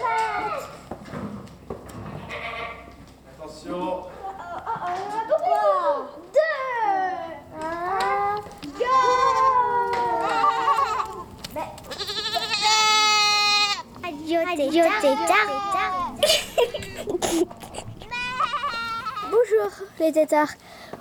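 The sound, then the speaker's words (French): A chorus of young goats being let out at a farm bleats almost nonstop, high wavering cries overlapping one another, with a few brief pauses between bursts. “Le lâcher de Chevrette, si ça Ah, lâcher de chevrette”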